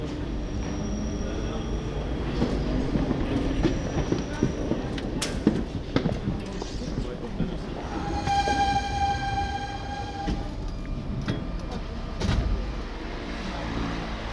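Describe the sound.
An RER E commuter train rumbles steadily along the rails, wheels clattering and rattling, with a brief high metallic squeal midway as it rolls on; faint voices murmur underneath.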